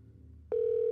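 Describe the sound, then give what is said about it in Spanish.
A low hum gives way to a loud, steady telephone tone that starts abruptly halfway through and holds at one pitch, the line tone after a phone call is cut off. “Y al cortarse la llamada, bueno, vamos a ver.”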